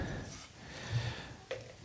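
A second frying pan is set down on a stove to warm up, with a single sharp metallic clunk near the end, over a steady low background hiss of cooking.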